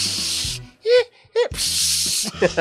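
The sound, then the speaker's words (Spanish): A voice mimics the static of distorted TV channels with two long, breathy hissing bursts, broken by a short gap with a couple of quick vocal sounds in between, fairly loud. “nada más escuchabas de repente. a veces nada más. Eh, eh, la estática, güey”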